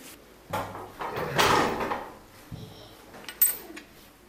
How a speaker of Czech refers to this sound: Jak jsem říkal, dá se ve Zlatém stoku vyrobit si i svoji pamětní minci. Takže teď už se roztáčí velký list, jedna rána a mince je tady.